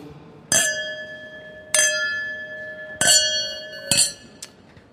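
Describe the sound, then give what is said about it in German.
Champagne glasses clink together in a toast: four bright strikes about a second apart, each leaving a clear ringing tone that hangs and fades, followed by a faint final tap. No voices. “ich möchte mich anstoßen”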